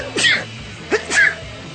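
A quick run of three sneezes in a sneezing fit, fairly loud: one sharp burst, a short pause, then two more in fast succession, with no talking around them.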